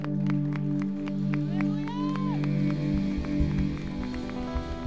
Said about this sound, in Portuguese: Em nome de Jesus. Eu profetizo. Aplauda ao Senhor o mais forte que você puder.